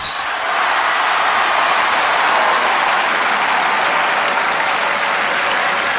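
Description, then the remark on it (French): A large tennis stadium crowd at Roland Garros roars with sustained, loud applause and cheering mixed with booing and murmuring, a dense, steady wash of noise lasting the whole stretch with no voices standing out. “À ce moment-là, la bande-son du match, qui mêle huées de consternation, rumeurs d'ahurissement et hurrahs de jubilation, est l'une des plus dingues jamais entendues à Roland Garros.”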